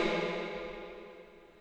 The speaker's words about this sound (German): So, das war jetzt ein Echo. Hast gehört? Oh, mega gut.